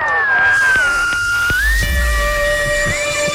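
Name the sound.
cat meowing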